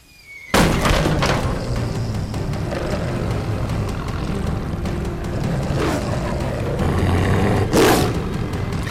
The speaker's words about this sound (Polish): Do broni, do wilkołak! Chowaj się!